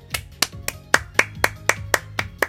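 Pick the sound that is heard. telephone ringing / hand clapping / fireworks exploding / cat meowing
hand clapping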